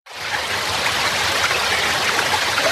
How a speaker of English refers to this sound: we have a channel called water on the system. I'll play a burst of it.